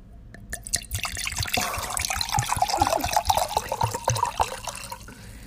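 Wine glugs and splashes into a glass in a steady pour lasting several seconds, with a few drips at the start and a bubbly, rising gurgle, fairly loud, no voices.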